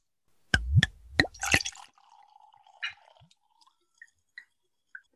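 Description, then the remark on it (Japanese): A few sharp clinks and knocks, then a thin, steady stream of sake pouring into a glass for a second or two, followed by several soft, spaced drips. The sake is a Yamada Nishiki sake named Miki, from Miki City, Hyogo Prefecture. Quiet, with no talking. “じゃあちょっと継がせていただきます。”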